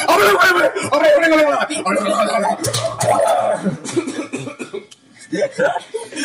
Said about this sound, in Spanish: y es que tosiendo ahí.